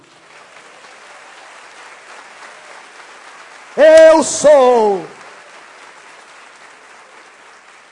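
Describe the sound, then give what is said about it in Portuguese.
An audience claps steadily throughout to applaud the King, a dense, even patter of many hands, while a man's voice briefly rises loudly over the applause in the middle. “eu sou, eu sou, aleluia, louvado seja ao nome do Senhor, eu sou, aplauda o Rei.”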